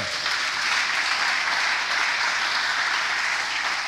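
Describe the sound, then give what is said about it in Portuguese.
An audience applauds God steadily, a dense, continuous wash of clapping from many hands that holds at full strength throughout, with no voices rising above it. “Dá um aplauso a Deus pela tua vida.”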